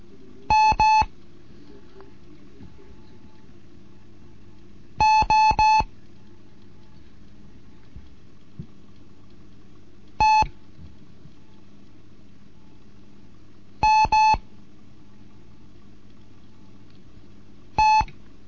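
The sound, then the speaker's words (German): Clear Morse code beeps from a Morse code lesson, a steady mid-pitched tone keyed in short dots and longer dashes, coming in separate letter groups spaced by long pauses over a faint low hum. “Hier ist die Gott 1 Kilo November mit einem Morseunterricht, dritte Lektion heute.”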